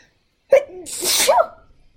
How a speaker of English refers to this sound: Oh, about to sneeze. Oh.